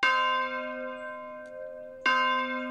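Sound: church bells ringing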